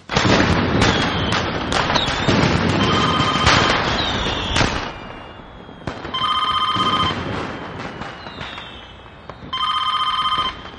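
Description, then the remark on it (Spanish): A rapid flurry of fireworks bursts with crackling and whistling streaks at a big party at a minister's house, loud, dying away before a telephone rings in two short bursts. “Salma observa los fuegos artificiales a través de una ventana de su casa.”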